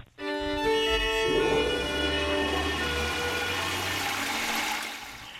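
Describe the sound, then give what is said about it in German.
A toilet flushes: a sudden loud whoosh of rushing water with a tonal, whistling pipe resonance that swirls and gurgles steadily for several seconds before starting to fade. No one speaks. “Das ist nämlich eine Klospülung.”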